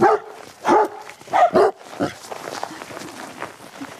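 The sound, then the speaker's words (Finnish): A dog barks four times in quick succession, loud, with two barks nearly back to back, on a walk with dogs including a leashed Finnish Hound, Väinö; then quieter outdoor background noise and faint movement follow. “Tää remmissä oleva nyt tää Suomen ajokora Väinö, nelipuolivuotias.”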